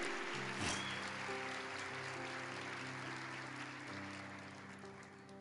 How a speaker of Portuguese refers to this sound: Quer aplaudir Jesus, querido? Porque é dele.